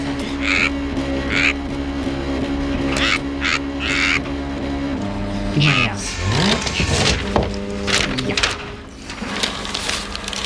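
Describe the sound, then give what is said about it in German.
A fax machine receives and prints, with steady buzzing, honking electronic tones, repeated short mechanical bursts and a warbling sweep midway. A voice speaks briefly over it. “Ah, da schon wieder ein Fax.”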